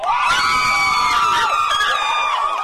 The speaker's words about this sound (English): he snapped photos as this crowd fought over $5 headphones